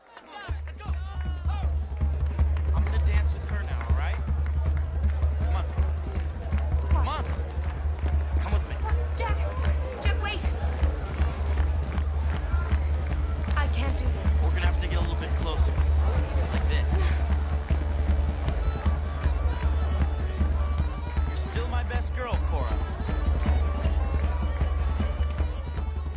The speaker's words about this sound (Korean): 네, 이 아일랜드 풍의 음악에 맞춰서 춤추던 모습 저절로 눈에 선한데요.